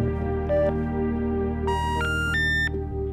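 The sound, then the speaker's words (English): A phone call to Mr. Augustine's disconnected number: after a short beep, three rising electronic tones sound in quick succession, loud and clear over a steady low hum on the line. “This is what happens when you dial his phone number.”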